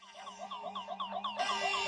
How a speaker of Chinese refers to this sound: 忽然，房间内传来了警报声。